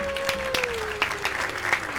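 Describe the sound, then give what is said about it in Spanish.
A steady burst of applause sound effect on a radio show, introducing the section Luces, Cámara y Sexo: dense, crackling clapping from many hands that holds at an even level for two seconds, with a faint sustained tone gliding slowly downward beneath it. “Un aplauso para esta, para esta maravillosa sección. Ya no sé dónde tengo los aplausos, pero da igual.”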